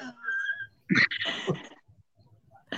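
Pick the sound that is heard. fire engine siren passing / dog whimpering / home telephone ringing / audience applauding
dog whimpering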